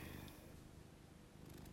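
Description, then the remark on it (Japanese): A cat named Chii-chan purring steadily, a soft low rumble that continues without a break for the whole short stretch, quiet and with no voices. “今日はちいちゃんのハゲゴローンを BGM にお送りいたしましたがいかがだったでしょうかねえ”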